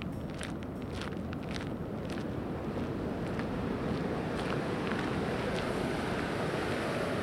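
A steady, roaring wash of water rushing over a dam on the Fox River in downtown Aurora pours continuously and loudly, with a few faint higher clicks flickering above the dense rumble; no one speaks.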